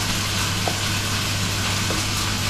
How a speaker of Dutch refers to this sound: Ik ga hem eh, afgieten in de wasbak. Heel erg onzorgvuldig, want er komt nog, hoe heet zoiets, zuurkool mee.